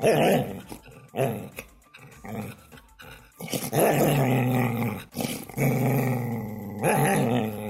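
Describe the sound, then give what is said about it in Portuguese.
A dog named Titi growls, starting with short separate rumbles and building into loud, sustained snarling with brief breaks, with no talking. “Quando você tem que latir pras pessoas no calçadão, aí você é corajoso, né?”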